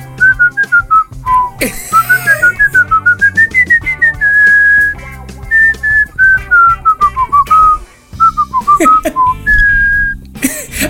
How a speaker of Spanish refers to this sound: O sea, ¿cómo puedes silbar?